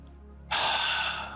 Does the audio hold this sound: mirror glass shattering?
no